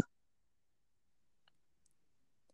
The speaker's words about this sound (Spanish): He tenido que ir a la tienda de emergencia a comprar lejía porque se me acabó y me pagaron en efectivo, no tenían YAP, entonces he tenido que venir a lavar todas mis monedas como 100 veces.